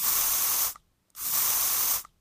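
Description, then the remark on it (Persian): Two short, bright hissing sprays from a small mouth-freshener pump bottle, taken from a car dashboard and pressed twice into a person's mouth inside a car, each lasting well under a second with a brief pause between, fairly loud with no voices. “قبل از اینکه از ماشین پیاده بشه مثل همیشه اول از داشبورد اسپری خوشبو کننده دهان رو در آورد و دو بار تو دهنش فشار داد”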